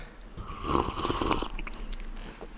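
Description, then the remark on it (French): Wet gulping and swallowing noises of a person drinking, a few throaty gulps in quick succession with breathy, slurping texture, loud and up front, with no talking. “C'est moi qui te double en fait pour le, bruit de déglutition.”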